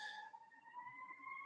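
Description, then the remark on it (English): A faint siren holds a steady, slowly rising wail throughout, with no voices over it. “I apologize if you can hear that siren in the background.”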